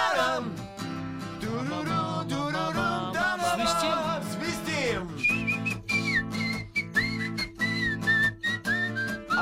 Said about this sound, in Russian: выражительный свист.